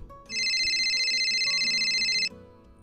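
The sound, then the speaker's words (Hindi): A bright electronic ringtone of an outgoing phone call trills steadily for about two seconds, a rapid warbling tone over faint background music, then cuts off abruptly. “और उसने फिर नौरी को कॉल करने का सोचा”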